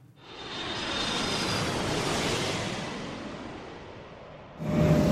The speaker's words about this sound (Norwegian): Vi tok intervju med … bak på rad 19 hvor eh, jeg satt, bare for å gjøre et poeng av eh, hvor stille eh, flyet er. Og det kan vi jo ta og høre på nå.